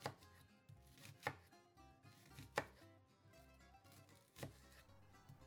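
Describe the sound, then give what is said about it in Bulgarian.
A knife chops a peeled onion bulb on a board, several sharp thuds spaced unevenly over a few seconds, with quiet background in between and no talking. “Обелвам, нарязвам”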